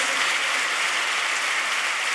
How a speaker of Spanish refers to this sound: No le puedes dar un aplauso al Señor por la vida de todas estas joyas